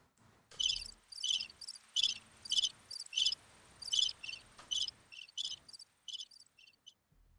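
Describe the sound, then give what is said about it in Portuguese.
Crickets chirp in a steady series of short, high-pitched pulses, about a dozen bursts over several seconds, clear against an otherwise quiet background with no talking. “Só os grilos, tadinho, que ficam ali tentando ajudar e não sabe como né?”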